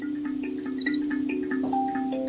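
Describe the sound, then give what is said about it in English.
Crickets chirp in short, repeated high-pitched bursts at a steady moderate level, layered over a continuous low humming drone, with no voices present. “So we just spent time with the crickets chirping and just imagined like what a four movement cricket concert would be like.”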